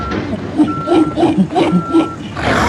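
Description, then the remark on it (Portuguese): A truck's reversing alarm sounds two long, steady mid-pitched beeps with a pause between them while one more animal is being unloaded, over a busy background of murmuring voices and engine rumble. “Esperem lá que eles ainda estão a descarregar mais um.”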